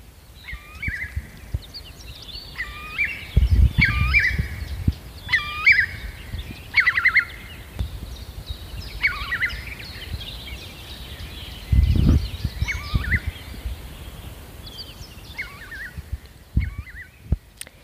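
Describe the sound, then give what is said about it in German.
A Eurasian curlew gives a run of repeated, slightly melancholy fluting calls that build into a bubbling trill, clear, with occasional low rumbles of wind or handling noise underneath. “Der große Bravogel, der hat einen ganz einen, ähm, charakteristischen, flötenden, leicht wehmütig klingenden Ruf und am Ende, also vor allem bei der Landung am Boden, hört man dann dieses typische Trillern auch.”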